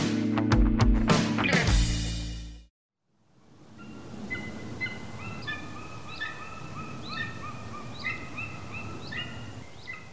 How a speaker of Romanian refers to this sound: Acvila de munte sau pajura, cum este cunoscută în popor, este pasărea care se regăsește pe stema României.